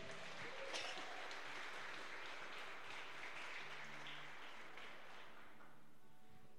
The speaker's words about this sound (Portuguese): Amém, queridos? Podemos aplaudir o Senhor por isso?